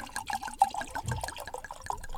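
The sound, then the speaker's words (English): Wine glugs steadily from a bottle into a glass, a big pour of about half the bottle, a continuous gurgling with rhythmic bubbling pulses, heard alone without talk. “now let's do a Holy crap. What we would call a Jerome pour.”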